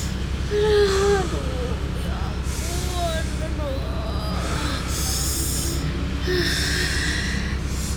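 Heavy breathing: a woman in a car stuck in traffic takes several deep, drawn-out inhales and exhales in a repeated rhythm as she is told to breathe in long and breathe out, with strained vocal sounds mixed in over a steady low rumble.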